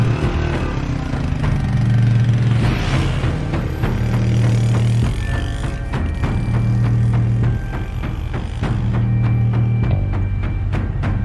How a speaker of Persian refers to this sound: سوار موتور میشه